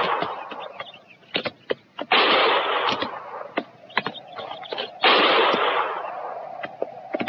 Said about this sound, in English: Didn't sound like no regular shooting.